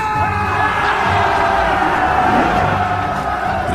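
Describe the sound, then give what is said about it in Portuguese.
A pirate ship's crew of many voices roars a loud, sustained battle cry, shouting and whooping together in one continuous wall of yelling that never lets up. “Quando a bandeira negra estava no topo do mastro, a capitã gritava e os olhos da tripulação brilhavam para a batalha”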